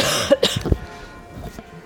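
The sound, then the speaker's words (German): A few sharp coughs burst out in quick succession, followed by a soft throaty rasp and then near quiet. No one speaks. “Ja, hust mal.”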